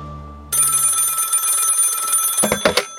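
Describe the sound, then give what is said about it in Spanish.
A hotel telephone bell rings loudly and continuously, a dense metallic trill starting half a second in, with a low hum beforehand and a few knocks near the end. “Teléfono. ¿Para mí?”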